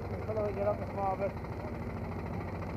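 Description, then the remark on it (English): A small tiller engine chugs steadily with a low, even rumble as the tiller is walked along a road through a heavy traffic jam, while a voice briefly speaks over it in the first second before the engine continues alone. “I let Osmond walk his tiller”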